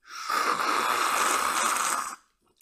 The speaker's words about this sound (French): Voilà, j'ai mon petit thé dans ma main. Je vais prendre une petite gorgée.